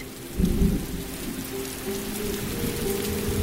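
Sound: heavy rain with thunder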